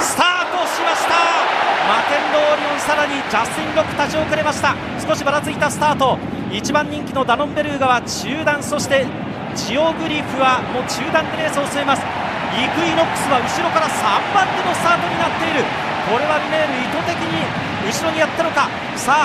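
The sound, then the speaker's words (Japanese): A large crowd at the Japan Derby horse race roars and applauds steadily in the background as the horses round the first corner, while a commentator talks quickly and continuously over the top throughout. “歓声と拍手が湧く中1コーナー左にカーブ”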